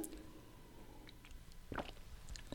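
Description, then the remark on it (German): A quiet sip of water: soft wet mouth noises and a brief slurp near the end, followed by a faint swallow, with no talking. “Ich trinke kurz einen Schluck Wasser.”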